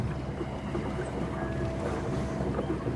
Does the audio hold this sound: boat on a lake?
yes